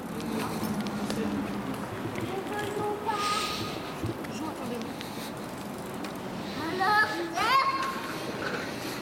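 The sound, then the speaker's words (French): Children's voices chatter and call out as they play and ride bicycles over a steady outdoor bustle, with a dog barking, a few brighter shouts rising toward the end and a faint rhythmic clatter underneath. “J'entends un chien qui aboie et des enfants qui jouent.”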